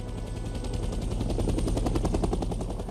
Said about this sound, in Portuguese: Quando o helicóptero pousa no mesmo lugar e aparentemente estava tudo tranquilo